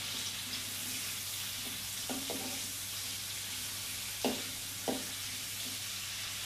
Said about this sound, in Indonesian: jadi digoreng aja sampai benar-benar mateng semuanya lembut pokoknya bawang cabai, tomat tuh semuanya lembut tomatnya juga kulitnya tuh agak-agak ngelupas gitu dan airnya keluar jadi emang minyaknya ini agak-agak kotor gitu ntar selesai goreng